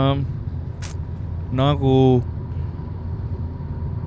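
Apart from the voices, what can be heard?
car interior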